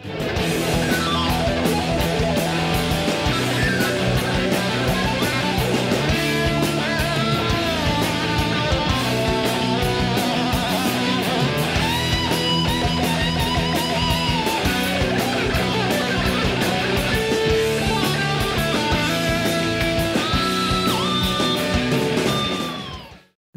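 A loud heavy metal song plays continuously, dense distorted electric guitar with bending notes sliding in pitch over a pounding, steady rhythm section, and no one talking over it.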